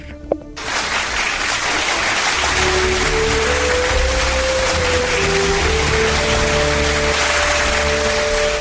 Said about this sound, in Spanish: Así que vamos a darle un fuerte aplauso, por favor.